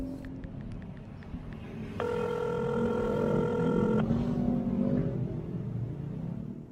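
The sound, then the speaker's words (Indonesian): A single two-second burst of telephone ringing tone sounds over a steady low rumble as an outgoing call rings through to a friend. No one speaks. “Coba ah, gue telepon.”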